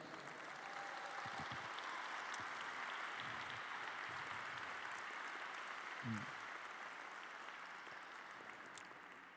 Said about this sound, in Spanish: Dale un fuerte aplauso al Rey.